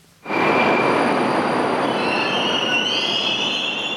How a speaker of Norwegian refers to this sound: Et nytt tog kommer susende inn på metrostasjonen Torgenjevskaja i Moskva. Det er ikke mer enn 40 sekunder siden det forrige toget forsvant inn i tunnelen.